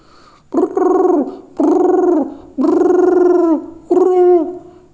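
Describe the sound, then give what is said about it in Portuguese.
A person imitates the owl character from The Gruffalo during a storytelling session, with four loud, drawn-out voiced hoots, each sliding down in pitch at the end; the third hoot is the longest, with short pauses between them. “que eu gosto também de imitar a coruja.”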